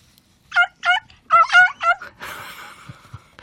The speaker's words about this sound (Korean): 얘 소리 들을 때마다 웃겨요. 암탉 소리예요. 한 번 더요. 노래하는 것 같지 않아요?